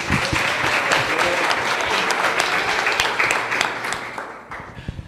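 A crowd applauds steadily, a dense wash of many hands clapping at even loudness for several seconds before thinning out into a few scattered final claps.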